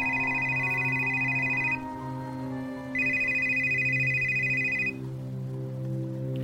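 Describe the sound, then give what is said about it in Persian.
A mobile phone ringtone plays two loud electronic bursts separated by a short pause over a steady low background tone, with no one speaking. “تو همین فکر بودم که موبایلم زنگ خورد”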